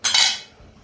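A spiced brew with bay leaves and cloves is poured through a sieve into a pot of water and apple pieces: a brief, bright splashing rush with a faint metallic edge that quickly fades to a low trickle, with no talking.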